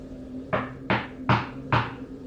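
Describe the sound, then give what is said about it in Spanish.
Four heavy, forceful knocks on the door of a house land in a steady, evenly spaced rhythm, with a faint low hum underneath and no voices. “Tocaron con mucha fuerza la puerta y yo vi con terror cómo el bebé casi se despertaba.”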